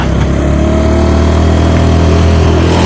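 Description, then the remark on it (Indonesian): A car engine hums loud, a steady mid-pitched drone that holds as the car rolls past while turning, taking the left side instead of the right, with no talking over it. “itu mobil orang belokan dia jalurnya orang ngambil kanan dia ngambil kiri”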